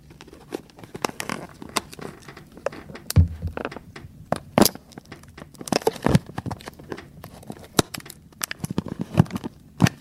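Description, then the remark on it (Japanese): Someone opens a taped package: a steady run of crinkly rustling, sharp clicks and thunks, and brief tearing bursts, irregular and fairly loud, with no talking. “テープテープ開かないなと思ったらテープがねいきますよはい”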